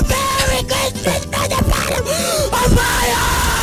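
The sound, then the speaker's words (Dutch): A person screams and yells loudly, a strained, raw voice shouting in bursts for several seconds with brief breaks between cries. “is Schreeuw lelijk.”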